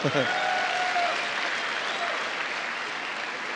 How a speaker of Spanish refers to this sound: Muy bien, muchachitos, se merecen un aplauso, se merecen un aplauso.